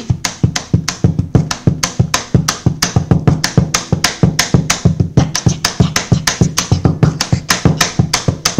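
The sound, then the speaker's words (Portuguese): Rhythmic tapping on the wooden body of an acoustic guitar in a Minas Gerais-style rhythm: quick, even hand strikes with a hollow, resonant thump, fairly loud for several seconds with no voices. “Olha, você faz no, no, tambor? Como é que você faz? No, no violão. No violão é mesmo.”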